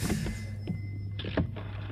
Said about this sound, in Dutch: Een draaischijf, mensen, van een telefoon. dat had je vroeger.